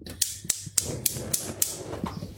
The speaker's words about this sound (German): Und innerhalb dieses Raumes dann die Küchen Küchenzeile mit einem vierflammigen Gasherd, der auch Selbstzünder hat. Mal hören, ob das funktioniert.